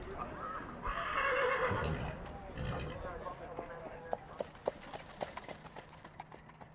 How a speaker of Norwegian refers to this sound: En svett og svart hest med hvite bein og en Erlend på slep kommer ut av porten og skritter mot oss